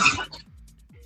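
sneeze

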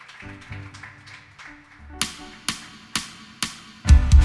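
church audience applauding

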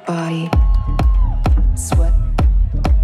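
audience applause and cheering

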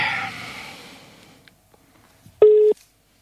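telephone busy signal

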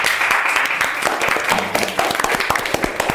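applause

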